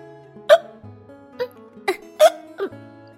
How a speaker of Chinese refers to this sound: 于是呢，老狼让小羊羔先在火炉边取暖。小羊羔忽然开始打嗝了。